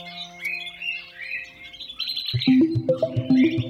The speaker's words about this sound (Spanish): ¿Sabías por qué algunos pájaros cantan tan temprano?